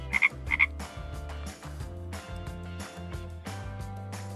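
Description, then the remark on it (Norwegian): Frogs croak loudly and steadily in rhythmic pulsing calls, with a pair of sharp higher chirps near the start; no voices, just the continuous croaking chorus. “Når våren kommer, tiner isen i kroppen, og frosken er hoppende klar til en ny og varm sesong.”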